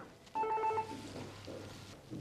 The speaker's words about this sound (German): Genau, jetzt hat mein Telefon geläutet, aber das lassen wir jetzt läuten.